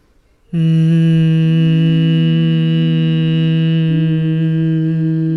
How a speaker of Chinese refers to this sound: 吐气的时候，让气息从鼻子出来的时候带着声音出来。